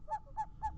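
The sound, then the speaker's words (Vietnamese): An owl hoots three times in quick, evenly spaced succession late at night, each call short and clear, with no voices around it. “Vàng trên không trung có tiếng cú kêu càng tăng thêm phần hồi hộp cho cậu.”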